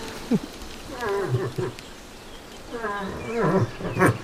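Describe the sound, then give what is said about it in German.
An elk calls twice in close succession, each a loud, drawn-out moaning bellow with a rising and falling tone, with a brief pause between them. “Eher Richtung Elch? Ja, sehr gut.”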